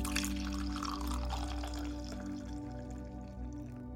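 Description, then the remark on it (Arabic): Coffee pours steadily from a pot, a continuous splashing trickle that holds for a few seconds over a low background hum, with no one speaking. “مصب القهوة حاضر”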